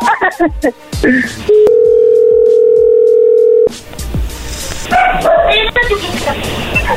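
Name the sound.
telephone dial tone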